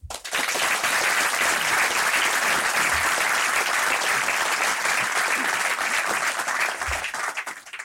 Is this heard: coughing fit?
no